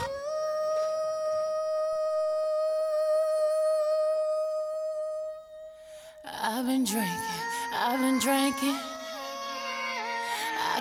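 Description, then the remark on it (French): A pop song plays at steady volume during a music break on Radio Pulsar: a long, held synth tone opens it, then a full beat and backing arrangement kick in with a sung vocal line over the top. “Mais avant ça, on va procéder à notre dernière pause musicale de la journée.”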